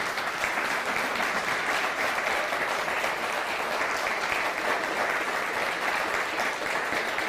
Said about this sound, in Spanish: Dele un fuerte aplauso al Eterno.